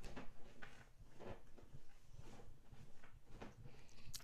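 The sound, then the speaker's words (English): A chair creaks and knocks in short, irregular bursts, fairly quiet, with no one talking over it. “when I talk to other people, yo, I gotta get a new chair because this shit sounds like shit.”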